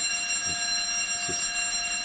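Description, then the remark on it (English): A fire alarm test, held every Friday at eleven, rings continuously in a steady, high metallic tone, held unbroken at an even moderate level, with a couple of faint low thumps in the background and no talking. “We get a, a fire alarm every oh. every Friday at eleven.”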